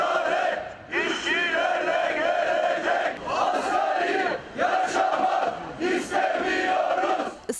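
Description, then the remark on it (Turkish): A crowd of protesting Maltepe Municipality workers in Istanbul, Turkey, demanding higher wages in front of the municipality building, shouts slogans in unison, loud rhythmic chanting in repeated bursts with brief pauses between phrases, many voices blending into a strong, steady roar. “İnsanca yaşamak için, insanca maaş için toplandılar. Hep birazdan haykırdılar.”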